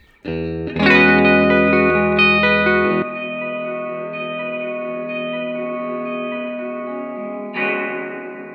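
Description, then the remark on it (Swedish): A guitar played through a spring reverb pedal's Killdry mode, with the dry signal switched off so only the springs are heard: a loud washy strummed chord around one second that blooms and lingers, then a second chord swell near the end; no voices. “Så att när du spelar så kommer jag stänga av då eh, liksom, eh, den torra signalen.”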